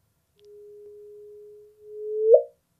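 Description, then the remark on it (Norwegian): A steady, pure low tone holds for over a second, pauses briefly, then swells and sweeps upward into a quick rising chirp that cuts off abruptly: a sonification of the first gravitational waves ever detected. “Så vi starter med de aller første gravitasjonsbølgene vi noen gang hørte.”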